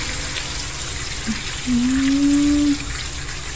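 Water runs steadily with a soft, continuous splashing hiss as it is poured onto potted flowers to water them, while a brief low tonal squeak or hum rises partway through. Nobody speaks.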